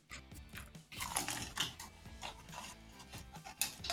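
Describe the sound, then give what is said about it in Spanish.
Wet chewing sounds with smacking and squelching, continuous and irregular, as someone chews a mouthful of gum. “Más chicles en la boca.”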